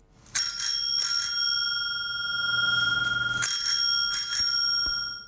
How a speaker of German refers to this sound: Vor allem in Zürich sind Veloglocken besonders viel zu hören. Dort gibt es nämlich sogenannte Mischverkehrsflächen, also Trottoir, wo nicht nur Fußgänger unterwegs sind, sondern auch Velofahrer.